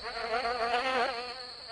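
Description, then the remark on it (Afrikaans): A fly called Veronica buzzes steadily, its drone wavering slightly in pitch as it flies back and forth over a compost heap, with no voices present. “Toe hulle by die kompos hoop skuins agter Maanie Muur se rooi muurhuisie kom, vlieg Veronica vlieg met 'n gezoem 'n paar keer heen en weer daaroor sit sy bo op 'n piesangskil wat eenkant lê en waai met haar vleevlerke.”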